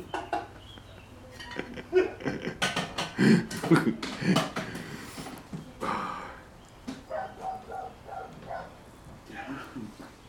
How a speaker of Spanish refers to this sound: Ahora que podía hablar un poquito más, weón, tu perro, weón, me interrumpió.